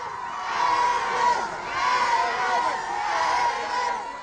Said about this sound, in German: Zurück blieben seine Verehrer, die ihn zünftig verabschiedeten. Morgen werden andere an seinem Zug stehen. Schreien werden sie genauso.